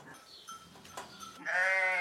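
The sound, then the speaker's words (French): Milked ewes bleat inside a sheepfold on the Larzac, with faint calls in the background before one loud, wavering bleat rings out to close the moment. No one speaks. “Donc bah là, on est dans la bergerie. Ça, c'est les brebis qu'on qu traite.”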